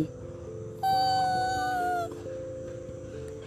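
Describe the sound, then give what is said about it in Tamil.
A single sustained fox howl rises in and holds a steady, slightly falling pitch for about a second, loud, over a low continuous background hum. “யார் இப்படி ஊழையிடுவா நரி ஆமா குள்ள நரி தான்”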